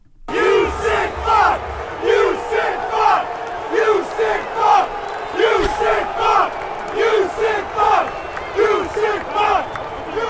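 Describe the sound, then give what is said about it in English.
A large crowd at a football stadium in Jackson (TAA Bank Stadium), on Children's Day, chants a rhythmic heckle at Deshaun Watson in unison, the same short shouted phrase "You sick fuck" repeating loudly about once a second over a steady roar of voices. “They are shouting "You sick fuck"”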